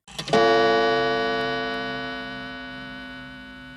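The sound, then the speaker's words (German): A single gong strike rings out as a transition sound, its rich metallic tone sustaining and slowly fading over several seconds, heard alone with no talking. “Es kommt wieder, wie gewohnt, der Gong und dann hören wir uns wieder.”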